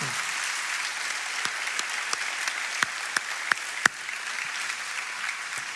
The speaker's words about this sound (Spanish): Demos un fuerte aplauso al Señor.